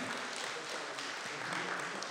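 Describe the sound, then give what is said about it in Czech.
A steady wash of audience applause, many hands clapping densely and evenly at a fairly loud level for a couple of seconds, with no distinct voices standing out. “Tak, já prosím potlesk.”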